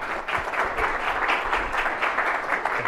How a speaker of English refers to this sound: So let me get out of the way and welcome Minister Luik to the podium and then get into a great discussion. With your applause, please join me in we- welcoming Minister Jüri Luik.